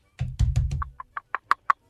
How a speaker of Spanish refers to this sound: El chiste es de que llega un señor y toca la puerta.